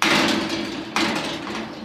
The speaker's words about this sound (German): öffnet die Tür.